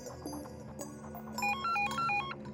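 An electronic telephone rings at 1:08 in the middle of the night at the volunteer fire brigade in Mölln, a bright warbling pattern of alternating beeps that starts about halfway through and repeats a few times over a low background hum. No one speaks.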